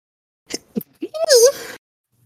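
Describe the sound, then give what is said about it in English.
A series of quick, sharp inhaled gasps builds up, then one loud, voiced sneeze bursts out, with a noisy hiss and a rising-then-falling vocal tone lasting about half a second. “I'm about to sneeze.”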